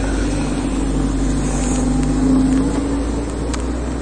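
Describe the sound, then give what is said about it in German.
A car drives by with a steady low engine rumble and a faint tonal hum that swells slightly midway, then settles. No one speaks. “Mein Auto verfolgt mich.”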